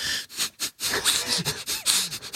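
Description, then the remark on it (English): A voice imitates a tune through the nose, producing a string of short, pinched, buzzy nasal blasts and snorting puffs in an uneven, bouncy rhythm, fairly loud, with no words. “And then he would do his nasal, uh, his nasal music.”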